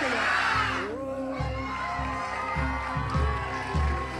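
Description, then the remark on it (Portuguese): A large crowd at a religious service loudly shouts the Portuguese phrase "O que está bom pode melhorar" ("what is good can improve") together in unison, with a burst of cheering at the start and a low droning accompaniment underneath. “Agora eu quero que você grite: O que está bom pode melhorar.”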